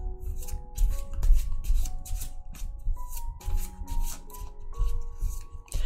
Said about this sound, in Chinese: 我们来看一下四号朋友们，选四的人最近的偏财运如何呢？来洗牌，抽一张牌。